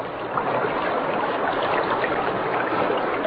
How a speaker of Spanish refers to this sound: Llegaban entonces a un arroyo que cruzaba alegremente el camino con el murmullo de su corriente cristalina.